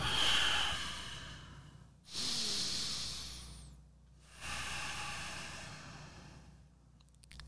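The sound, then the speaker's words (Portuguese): Slow, deliberate breathing exercise: three long airy breaths, each a drawn-out rush of air lasting a couple of seconds with brief pauses between, fairly loud, with no talking. “Então, quando eu faço um tipo de respiração,”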